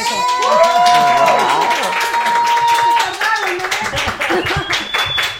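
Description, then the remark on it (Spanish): A crowd bursts into loud, dense applause that holds steady for several seconds, with cheering voices and a high whistle-like tone rising over the clapping. “Ahora sí pueden aplaudir.”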